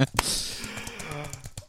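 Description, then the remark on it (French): Rapid clicking of computer keyboard keys being typed, a quick irregular patter of sharp taps, with a faint voice murmuring underneath. “Écoutez, ce sont des bruits de clavier.”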